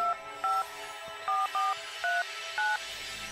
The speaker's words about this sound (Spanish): Llama inmediatamente por celular al 911.